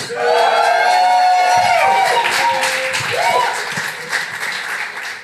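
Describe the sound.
A live audience in Nuremberg roars and shouts continuously, loud and dense, with individual voices rising into whoops and yells over a steady wall of cheering, plus some scattered claps.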